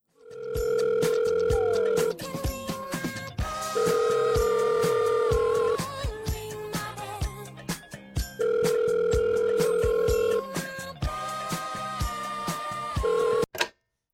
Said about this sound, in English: He rushed to the Redenbacher phone in the Orville office, picked it up, and asked for Alexander Graham Bell, the messenger of the gods.